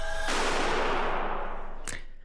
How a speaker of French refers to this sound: cette explosion, c'est pas celle d'une bombe, mais c'est celle du service de déminage qui a fait sauter la valise, sauf qu'elle ne contenait, cette valise, aucune trace d'explosif.